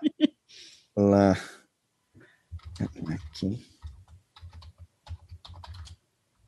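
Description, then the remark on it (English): Rapid typing on a computer keyboard while looking things up on the internet, fairly quiet, a run of light clicky keystrokes following a brief burst of voice and a short harmonic tone near the start. “Watching us look things up on the internet.”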